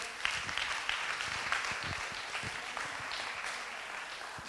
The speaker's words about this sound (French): Amen. On peut applaudir pour les Togolais.